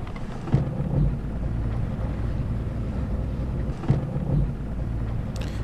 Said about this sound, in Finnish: Ja ei muuta kuin koneet käyntiin ja matka jatkuu. No niin, saadaan yr- vaan yr- käyntiin. Yrität pitää käynnissä.